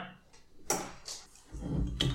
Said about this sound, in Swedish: Eh, ska vi öppna de, eh, ölen? Ja.